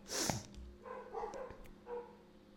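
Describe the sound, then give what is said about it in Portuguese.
Dogs barking a few times in short, uneven bursts over a faint low hum, with no one speaking. “Gente, esses cachorros me matam.”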